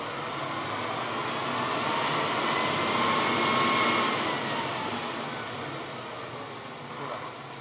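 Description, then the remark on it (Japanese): A diesel railcar engine at the railway depot in Fukuchi town rumbles steadily as the railcar parked alongside gets ready to move, its drone swelling louder midway before easing back to a steady idle, with no voices over it. “えー、今から隣に止まっている平地区が動くようですね。音が、音が、例の音が出ます。”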